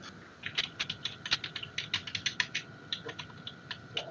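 A locked metal grate door being unlocked and opened slightly: a quick series of sharp mechanical clicks and ratcheting rattles over about four seconds, with no voices.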